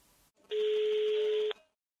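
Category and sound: signal or alarm, telephone number being dialed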